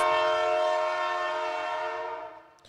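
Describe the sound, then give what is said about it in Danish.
A single sustained train horn blast, loud, its harmonic chord holding steady before fading out near the end, with no talking over it. “Så det er, øh, det er mit bud, og nu kommer hornet.”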